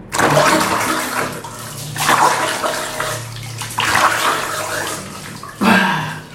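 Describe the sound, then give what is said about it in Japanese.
Bubbling, gurgling water as someone blows steadily into bathwater, keeping the water out of nose and mouth, like in a public bathhouse tub, in four long bursts of frothy splashing with brief pauses between them, fairly loud. “この音この音させようと思ったらねその鼻とか口にお湯が入らんようにずっとふーって吹いてる状態なんよそれがシャラシャラシャふがシャワシャワシャワって言ってんのよ”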